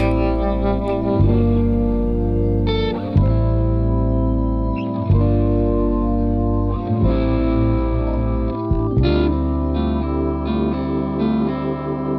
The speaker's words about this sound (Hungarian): Meghallgatjuk a dalt, ha már ennyit beszéltünk róla, aztán még egy picikét folytatjuk a beszélgetést.